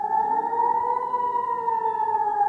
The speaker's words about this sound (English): Air raid sirens wailed as Palestinians fired more than 200 rockets across the border.